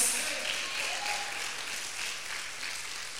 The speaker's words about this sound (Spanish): Fuertes aplauso porque Él cambia los planes.